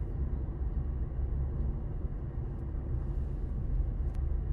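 A steady, low car engine rumble fills the cabin during a drive, a continuous droning hum with road noise that holds an even loudness throughout, with no voices.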